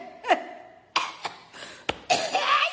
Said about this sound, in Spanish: no es que tenga coronavirus, es que me vino la tos.